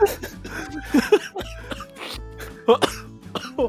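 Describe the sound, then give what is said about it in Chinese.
A run of harsh coughs arrives in irregular bursts, some in quick pairs, over a steady low background hum. No one speaks between them. “哦，整集都是我咳嗽声啊！”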